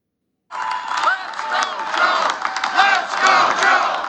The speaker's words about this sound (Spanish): Al grito de Vamos Joe, los asistentes a la conferencia legislativa de sindicatos mostraron su apoyo al presidente Joe Biden en su primera comparecencia pública tras anunciar su candidatura a la reelección en 2024.